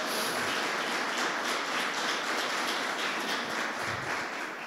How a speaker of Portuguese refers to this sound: E cadê o povo de Deus hoje aqui? Ah, eles vieram, o povo de Deus, então pode aplaudir Jesus bem alto, gente?